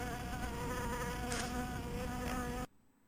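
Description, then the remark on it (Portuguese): A housefly buzzes loudly and steadily, a continuous droning whine with slight wavering, then cuts off abruptly near the end, leaving near silence. “Já ouço barulho de mosca antes de.”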